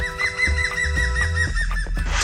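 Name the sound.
green woodpecker laughing call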